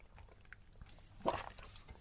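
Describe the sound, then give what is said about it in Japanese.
A short, soft sip of filtered 'clean' drinking water, a single quick slurp about midway through an otherwise quiet stretch with faint mouth and handling noises. “これ飲めば浄化されるんでしょっていう、完全にあの、間違った。”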